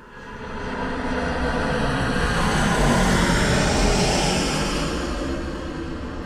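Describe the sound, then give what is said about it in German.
A jet aircraft roars overhead, a broad rumbling whoosh that swells steadily to a loud peak midway and then eases slightly, with no voices. “Fluglärm.”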